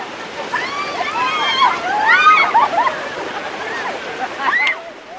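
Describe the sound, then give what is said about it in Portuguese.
Steady surf washes across Carcavelos beach while excited voices shout and call out over the water, with occasional splashing and a brief high squeal near the end. “Na praia de Carcavelos,”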